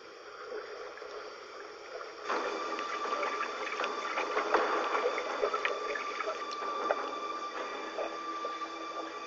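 Water sloshing and splashing from someone treading water, with irregular small splashes over a steady wash that grows louder after the first couple of seconds. No one speaks.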